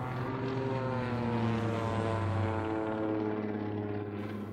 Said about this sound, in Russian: И вдруг я слышу, гудит, гудит мой самолет. Механики узнавали иногда свой самолет по рокоту двигателя.